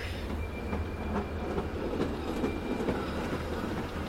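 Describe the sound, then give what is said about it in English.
A train goes off, rumbling steadily along the rails, its low drone joined by faint rhythmic clacks of the wheels, continuous throughout with no voices. “But then he slowed and stopped and watched the train go off.”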